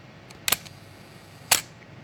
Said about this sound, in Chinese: 我给大家举个实例啊，比如说尼康 FM2 的这个，嗯，一秒的快门速度是这样的，注意听啊，